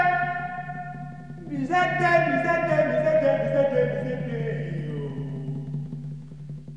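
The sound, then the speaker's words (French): A 1956 calypso recording of a dockworkers' work song, originally sung by dockers loading bananas onto boats at night, with a singer repeating a short chanted phrase over a steady, sustained band accompaniment and bass, fairly loud and continuous throughout. “À l'origine, c'est un chant de travail des dockers donc qui chargent des bananes la nuit sur des bateaux.”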